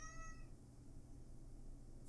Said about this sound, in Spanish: Aquí, una, aquí está mi gatita, eh, hablando de animales, ¿no?